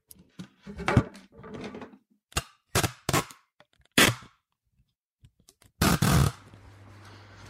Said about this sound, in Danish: Jeg har taget et kosteskraft frem og tapet min optager fast til den.